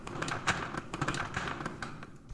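A wooden chair is set down on a hard floor, with a few short knocks and scrapes as it is placed. The sound is close, moderately quiet, with no talking.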